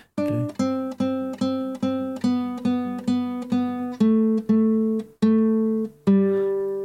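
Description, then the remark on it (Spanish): A bright, sustained instrumental tone plays a descending scale at the end of a song, sounding each step twice or more in a steady rhythm of about a dozen clear, separated notes, heard alone. “En una parte de la canción, al final de la canción, hacemos una escala descendente repitiendo notas que suena así.”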